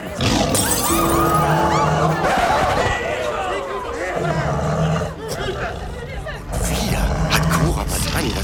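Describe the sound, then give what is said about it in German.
A real tiger's deep roars and growls rumble through a noisy, crowded party scene, with excited voices and general commotion heard throughout, loud. “Da ist ein Tiger. Ein echter Tiger.”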